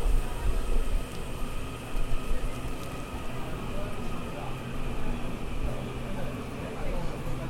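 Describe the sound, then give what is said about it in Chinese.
Wind blows across a railway platform as an electric commuter train slowly pulls in, its steady low rumble joined by a thin, constant electric whine. “啊，随着风声呢，电联车慢慢进站的声音。”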